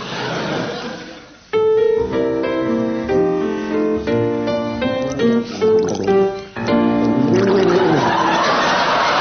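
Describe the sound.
Willie Rushton gargles a melody, the wet bubbling throat sound carrying a clear tune of sustained notes that rise and fall for several seconds, fairly loud, with no one talking over it.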